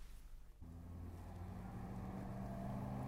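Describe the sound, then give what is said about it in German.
A car engine rumbles, its low hum growing a little louder, then settling into a steady idle as the car, flagged down on a street, comes to a halt. No one speaks. “Und so trieben denn 162 Verbrecher den kleinen Dick aus seinem Unterschlupf, trieben ihn auf die Straße, wo er zusammen mit seiner Braut Effi Marconi hilfesuchend ein Auto anhielt.”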